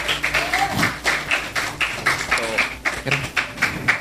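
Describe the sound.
Steady applause from a small group, the claps landing in a fairly regular rhythm for about four seconds, with a few voices calling out underneath.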